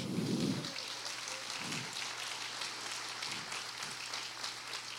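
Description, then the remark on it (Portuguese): An audience applauds to the Lord, a steady wash of many hands clapping at moderate volume, with a few low thuds early on and a constant hum underneath; no one speaks. “Se você quer, aplauda ao Senhor.”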